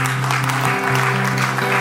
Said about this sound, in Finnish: Ama, annetaan vielä Jeesukselle aplodit.